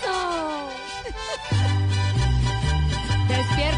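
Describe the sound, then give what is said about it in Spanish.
A recorded serenade song, the kind played when dedicating a serenade to someone, plays loudly, opening with bright melodic lines before a fuller band with a pulsing bass enters partway through; no one speaks over it. “El son de la negra, la canción que le ponen a usted cuando le van a dedicar una serenata.”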